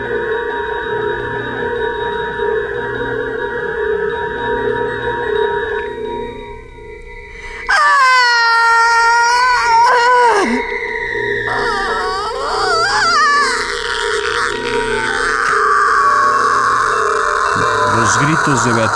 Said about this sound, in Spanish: La condesa estremecióse oyendo aquel plañir que hacía miedo en el silencio de la noche y acudió presurosa.